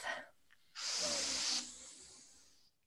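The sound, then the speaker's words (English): Several people draw in a deep breath together, a loud, airy inhale lasting under a second, then a softer hissing breath that trails off; no talking. “Let's all take a deep breath.”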